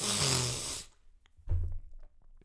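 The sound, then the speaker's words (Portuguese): A loud snort with a rough, wet rasp lasts nearly a second. After a brief pause, a shorter guttural burst follows as a person clears phlegm from the throat. No talking. “Isto, eu fiz isto agora só mesmo para poder fazer outra vez, porque ainda tinha aqui um bocado de coisas na garganta.”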